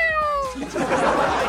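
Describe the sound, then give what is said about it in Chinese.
A voice mimics a cat's meow: one drawn-out, high, slightly falling tone with clear harmonics, followed by a breathy, noisy tail like a chuckle or exhale. “一会儿学一声猫叫，喵。”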